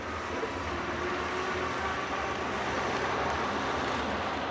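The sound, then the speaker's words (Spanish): A chauffeur-driven car arrives at a residence, its engine giving off a steady, even rumble with a broad hiss of road and motor noise that holds at a constant level throughout. No voices are heard. “Llega su coche.”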